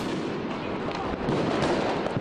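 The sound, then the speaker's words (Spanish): A dense, continuous crackle of fireworks going off all around on New Year's Eve (Silvester) in Berlin, Germany, with overlapping bangs and pops forming a loud, chaotic wash of explosions with no pause. “Pero algo que sí es muy diferente del Año Nuevo en México y el Año Nuevo de aquí es cómo suena el ambiente alrededor.”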